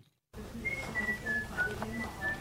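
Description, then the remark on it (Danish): A man, a volunteer sorting out bad fruit at a food aid charity in Frederikshavn, Denmark, whistles a wavering, tuneful melody of sustained notes over a busy room tone with soft rustling and handling noises in the background. “Det er …, der fløjter.”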